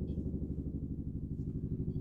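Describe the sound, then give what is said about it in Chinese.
A helicopter flies over Washington, droning steadily for the whole stretch, its deep, throbbing rotor and engine rumble holding a constant loudness with a rapid low pulse and no voices over it. “我们这里有个直升机， 哦，怪不得，嗯，这个是华盛顿的日常吗？”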